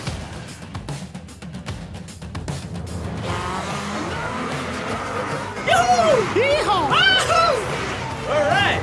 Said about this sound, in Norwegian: Ah, lyd fra spillet Dirt 4 her. Og mm. Eh, jeg er bare sånn at jeg jubler for at jeg hører at det eh, er bilkjøring og kul musikk og sånn, for jeg har jo ikke spilt det her ennå.